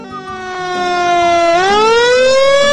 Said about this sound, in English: Look, here comes the fire engine, says one little monkey.